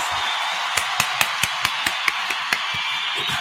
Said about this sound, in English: Um, also, make sure y'all keep the round of applause going for 583 Expressions.